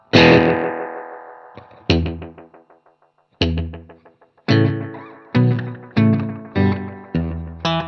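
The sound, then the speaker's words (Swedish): Distorted electric guitar chords played through a delay, each strum trailing off into a string of quick echoing repeats that fade and get narrower with each bounce, followed by several shorter, tighter stabs. “Och, och men det hör ni nästan hur det svansar av. Det blir liksom, varje, varje studs, blir lite mm. smalare.”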